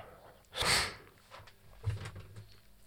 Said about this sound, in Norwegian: Beklager for snufsinga igjen. Du får bare holde ut, eller så får du skru av.